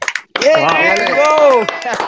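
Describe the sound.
A short burst of scattered hand claps from a small group, mixed with a loud, sustained cheering voice that rises and falls.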